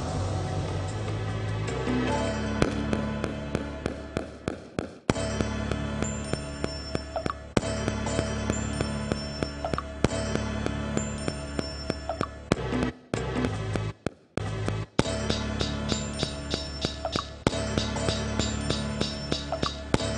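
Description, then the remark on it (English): A slowed-down TED theme song plays on its own, loud and thick with sustained, drawn-out tones in long phrases, cutting out briefly a couple of times near the end before resuming. “I'm going to slow it down because things sound cooler when they're slower.”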